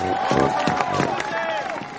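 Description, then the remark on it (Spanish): A large crowd in a street, carrying balloons and banners, applauds and cheers an American football team running down the middle of the road, with steady clapping and a dense wash of voices. A sustained whistle-like tone runs through the loud, continuous noise. “Todos aplauden a un equipo de fútbol americano que corre por el centro de la calzada.”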